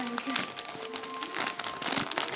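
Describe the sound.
Wrapping paper crinkles and rustles in dense, uneven bursts as birthday presents are unwrapped, loud and continuous for a couple of seconds, with faint voices murmuring underneath.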